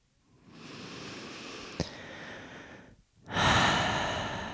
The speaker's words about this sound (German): Atmen ein paar tiefere Atemzüge ein und aus. Und mit der Ausatmung lass deine Schultern sinken.